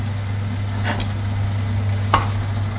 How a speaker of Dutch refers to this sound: Ik ga de garnalen ook met de kip, eh, kiptang gewoon uh, husselen, want dat maakt mijn familie toch niks uit.